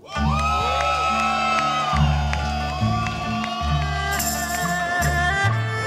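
An audience at a Roast Battle cheers and whoops steadily for several seconds as comedian Victor Tran is introduced, the crowd noise mixed with loud, bass-heavy music pulsing underneath.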